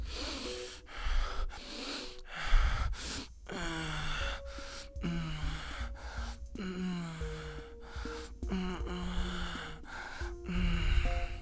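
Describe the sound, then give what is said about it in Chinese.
A single voice demonstrates sounds made during sex: loud, heavy breaths alternating with short, muffled, low-pitched moans, combined as two stages and repeating in an uneven rhythm for several seconds with no speech. “在性爱当中很享受、很满足、很 OK、很希望它继续，那我们才会发出这样的讯号，所以我们就可以加上刚刚那个呼吸，然后加上闷哼，两个阶段就变成。”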